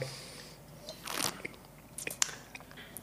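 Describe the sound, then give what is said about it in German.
A wet gulp of a mouthful of wine going down, a soft liquid surge followed by scattered smacking and clicking mouth noises, quiet overall with no one speaking. “Und das äh, Runterschlucken wird auch immer schwerer bei dir, muss ich sagen.”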